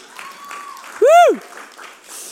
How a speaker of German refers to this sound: Hey, danke vielmal. Mega cool. Geben wir uns einen Applaus.